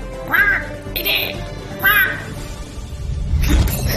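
Two loud, harsh seagull cries, each a rising-then-falling squawk, with a noisy burst of other bird chatter between them and a rumbling wash of sound near the end.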